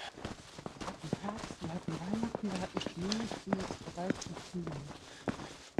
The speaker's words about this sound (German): Aber ah, die machen schon eine ganze Menge Lärm, die Schafe, ne? Denen gefällt das Wetter nicht.